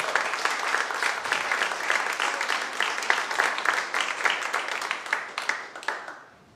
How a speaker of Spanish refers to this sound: Pueden aplaudir al Señor, Él es maravilloso.